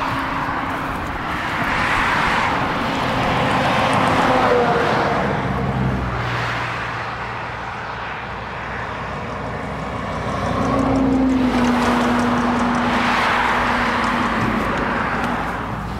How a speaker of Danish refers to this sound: Okay. Ej, det er med meget trafik.